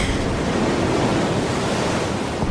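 A steady, full roar of ocean surf washing against the shore, loud, with a rushing wind-like hiss and no distinct pauses between waves.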